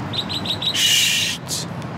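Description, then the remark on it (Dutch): A mechanical bird chirps four quick, evenly spaced times, then gives a longer buzzing trill and one short final burst. The chirps are clear, with no voices. “Als je goed luistert, hoor je achter ons de mechanische kwiet.”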